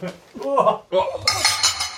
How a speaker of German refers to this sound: Wollen wir anstoßen? Ja, äh, Prost.